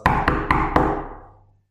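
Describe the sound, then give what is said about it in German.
Four quick knocks on wood in an even rhythm, sharp and fairly loud, each leaving a short resonant ring that fades out after the last one. No one speaks. “Holzklopfen, ey. Ja, ey, ich würde dich auch, warte, hört mal, für den Podcast.”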